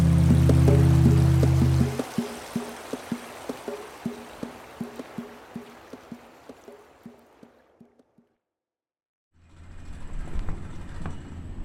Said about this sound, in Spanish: estamos en el río Magdalena, estamos montados a bordo del remolcador Sotará, yendo a la cabina de mando